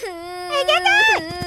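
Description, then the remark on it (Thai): A child standing and crying lets out one drawn-out, wavering wail that swells and bends in pitch before trailing into a few faint, choppy sobs. “เอ๊ะทำไมเด็กคนนั้นยืนร้องไห้อยู่ล่ะ”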